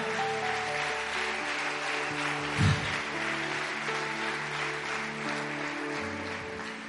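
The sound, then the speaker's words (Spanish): A crowd claps steadily and loudly for several seconds, giving applause to the Lord, a dense wash of applause over sustained musical tones, with one brief thump partway through and no talking. “Si tú lo crees, dale un fuerte aplauso al Señor.”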